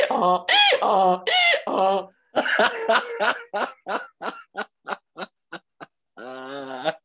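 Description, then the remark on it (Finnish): A person imitates a donkey's bray with their own voice, not from an app. Loud, wavering honks break into a run of short, rhythmic gasping bursts that slow and fade, then one more drawn-out honk at the end. “Aasi. Mä tein ton itse, ei tullut mistään applikaatiosta. Oliko se aasi? Oli, oli.”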